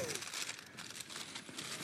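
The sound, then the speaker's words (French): Kraft paper packaging crinkles and rustles as it is unwrapped, a steady run of crisp, papery crackles lasting a couple of seconds at a fairly soft level. “Un, deux, trois, papier craft. Il y a encore un emballage.”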